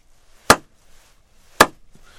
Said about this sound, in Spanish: Es como cuando uno aplaude, ¿no?